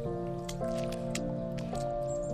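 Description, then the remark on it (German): Several wet splashes land at irregular intervals as a young fox jumps from puddle to puddle in a field after a rain shower, with water sloshing and dripping. A steady, soft musical drone plays underneath throughout. “Es springt von Pfütze zu Pfütze, dass es nur so spritzt.”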